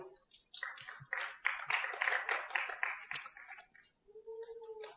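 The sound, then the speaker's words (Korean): A group bursts into clapping for about three seconds, a dense and irregular patter of many hands that fades out, followed by a short sustained voice-like tone. “자, 박수.”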